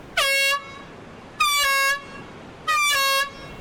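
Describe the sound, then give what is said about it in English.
Three loud, sustained blasts of a shark-warning air horn being tested at Ocean Beach in Cape Town, South Africa, evenly spaced about a second apart, each a bright harmonic-rich tone with a slight rise at the start. No one speaks. “This is just a test, but about 50 times a year, this horn and an even louder siren signal an actual alarm.”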